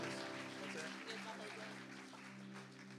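Steady, dense applause from an audience for graduates, a continuous wash of hand clapping that holds at an even level for about three seconds, with a faint tonal hum and crowd murmur underneath.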